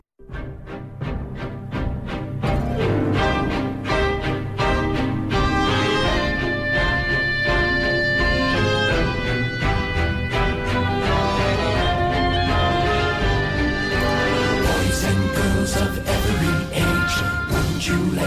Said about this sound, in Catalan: 15 d'agost de 1627 i aquest ritme en blues de la cançó, no pensava jo que la música del segle XVII tingués aquest ritme